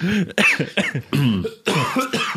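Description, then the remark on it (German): A run of loud, close coughs and throat-clearing sounds, several rough bursts in quick succession over a couple of seconds, right up against the microphone. “Jetzt habe ich nee, ins Mikrofon gehustet.”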